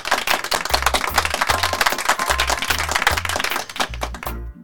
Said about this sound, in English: So, these were all good holidays. So, let's give a round of applause to those.